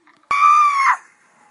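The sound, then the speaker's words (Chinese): A single loud, high-pitched scream of fright, let out with full force in an empty warehouse on finding a pair of staring eyes, bursts in abruptly, holds steady for about half a second, then rises slightly in pitch before cutting off and leaving a faint lingering tail. “我用尽全身力气，发出了一声尖叫。”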